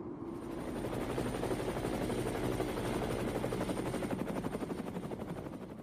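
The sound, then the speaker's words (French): A helicopter arrives at the end of a mountain expedition, bringing friends from the base camp who step out of it; its rotor chop swells up quickly and holds loud, a fast rhythmic thudding over a deep engine roar, with no voices. “mais c'est vraiment quand euh, voilà, l'hélico arrive, et puis que là, c'est des, euh, des potes qui nous faisaient notre base arrière, qui débarquent de l'hélico ça marque vraiment la fin.”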